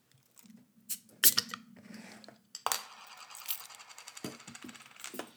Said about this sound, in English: Nice. Got that good bottle sound. Yeah. Speaking of which, what we got? This is Collective Arts Outer Edges. It's their Polish potato pilsner. It's 5.2% and uh, it has a, a picture of, a, of like a sad woman on it who's thinking about something.